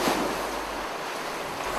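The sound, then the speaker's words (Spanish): Small waves wash steadily over the shore in a soft, continuous hiss of surf, with a slight breeze and no voices present. “Juntos miramos las pequeñas olas que ya cubren nuestros pies.”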